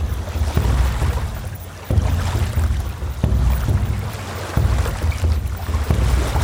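A boat on the Hooghly River in India chugs along with a steady low engine drone, broken by regular soft thumps every second or so, over a wash of water and wind noise. No one speaks.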